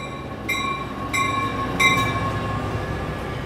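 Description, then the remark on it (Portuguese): A train rumbles steadily at station platform number 5 as it pulls away, with three short, bright tonal blasts sounding in quick succession over the continuous low noise. No one speaks. “Nosso trem partirá em instantes da plataforma número 5.”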